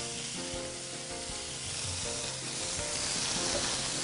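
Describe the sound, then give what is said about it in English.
Food searing in a hot pan, about 10 to 15 seconds per side: a steady crackling sizzle with fine popping that holds at an even, moderately loud level and swells slightly toward the end. No one speaks. “And while these are searing off, I'm going to get started sauteing my vegetables for the, for the Fulton Fish Market Cioppino.”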